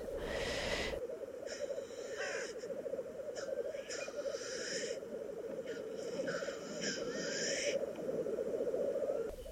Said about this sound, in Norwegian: Den har jo sånn leik. Sånn som nå om kveldene og morgenene, så kan du høre orrfuglen sitte oppi lien og spille.